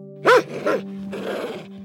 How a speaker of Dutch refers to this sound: Laat ik als voorbeeld nemen dat er een grote hond blaffend op je af komt rennen.